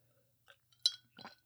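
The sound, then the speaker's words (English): A single soft clink of glass rings out, followed by quiet sipping and mouth sounds, with brief faint taps before it and no talking. “As I take a sip of my drink, yeah.”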